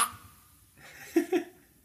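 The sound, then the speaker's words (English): A short, choked cough sound effect from a video game, made when something pops out: two quick, harsh gasping bursts in close succession after a brief quiet lull, moderately loud. “It's like a gasp with someone of someone that has asthma. Ah! it's like a duck quack or something.”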